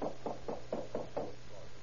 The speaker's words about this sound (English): Officers knocked on the door.